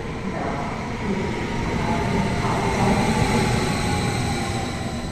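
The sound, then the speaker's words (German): An InterRegio 36 train pulls into platform 5 at the station in Oerlikon, rumbling steadily in a dense, continuous low roar with faint metallic rattling. No one speaks. “Gleich 5, Einfahrt der Interregion 36.”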